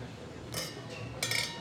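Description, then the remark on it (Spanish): Two bright glass clinks about half a second apart, like glasses touched together in a toast, fairly soft against a low background murmur with no clear talk. “Salud por esto.”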